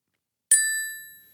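A single bright bell ding strikes once after a brief silence, its clear metallic tone ringing out and slowly fading away with no other sounds around it.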